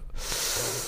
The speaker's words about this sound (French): À tes souhaits.